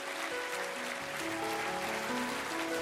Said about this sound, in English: Why don't you clap your hands real big? Clap your hands real big.